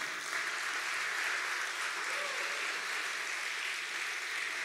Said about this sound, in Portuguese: Louvado seja Deus. Aplauda o Senhor, querido.